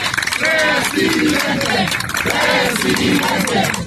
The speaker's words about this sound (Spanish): quien se apuntó para dirigir el Frente Amplio por México cerca de las 10.30 de la mañana, con fuerte respaldo de seguidores que no titubearon en gritarle porras y en compañía de su esposa.